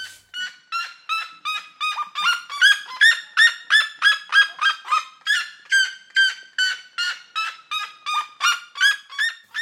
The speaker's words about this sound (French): Mais à la ménagerie du Jardin des Plantes, il n'y a que des animaux dont je n'avais jamais entendu parler. Je suis en grand dialogue avec la chouette à lunettes, la Mouroukoutoutou.